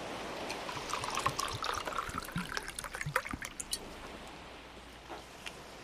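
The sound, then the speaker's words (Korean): Soju is poured into a glass, a bubbling, gurgling trickle lasting several seconds before it tapers off into quiet, with no one speaking. “자, 한 잔 더 주긴 할 건데 취하지 말아요.”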